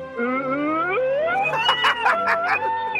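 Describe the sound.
A voice imitates an ambulance siren as a vocal impression on Park Myung-soo's radio show, a rising, wavering wail that climbs in pitch and breaks into choppy pulses toward the end, loud throughout.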